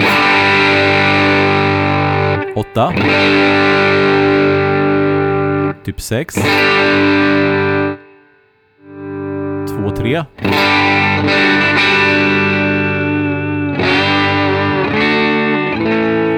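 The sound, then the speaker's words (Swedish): A distorted electric guitar rings out in sustained chords as its volume knob is rolled down toward a clean tone, dropping briefly to near silence before the crunchy tone returns, with a few spoken numbers heard over it. “Hur långt mm. behöver du rulla ner för att den ska bli clean nu då?”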